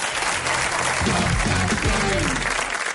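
An audience breaks into sustained applause, a dense wash of many hands clapping steadily for the full stretch, with a faint murmur of voices underneath.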